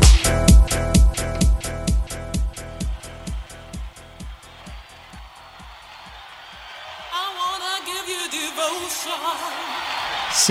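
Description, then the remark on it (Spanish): The opening of a 1991 UK dance track: a punchy, steady electronic drum beat that gradually thins out, then gives way to crowd cheers and whooping voices rising over a wavering synth line. “Así que sin más, yo creo que podríamos arrancar y nos vamos hasta Reino Unido. Concretamente hasta el año 91 con un track que empieza a sonar así.”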